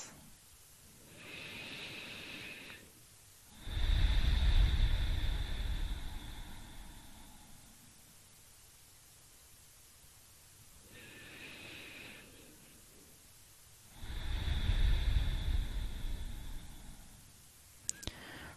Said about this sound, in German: Wir fangen an und nehmen ein paar tiefe Atemzüge und atmen durch die Nase ein und durch den Mund aus.